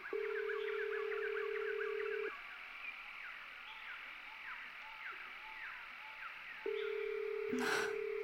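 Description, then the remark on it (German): A phone line rings out with a steady ringback tone, two long beeps separated by a few seconds of silence and no answer, while birds chirp softly outdoors in the background. “Ich versuche nochmal anzurufen.”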